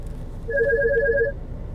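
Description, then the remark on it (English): A phone rings with an incoming call from a doctor's office: one short burst of rapid, warbling electronic trills lasting under a second, fairly clear over a low steady background rumble, with no one speaking. “I'm getting a phone call from the doctor's office that wrongfully billed me.”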